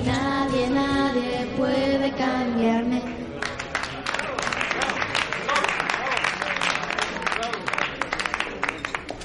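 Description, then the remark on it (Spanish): A voice with a sung or drawn-out tone opens, then people seated in the front row before a stage burst into dense, steady applause, many hands clapping, sustained until the end. “Luego las dos chicas siguen encima del escenario y en primera fila están aplaudiendo sentados”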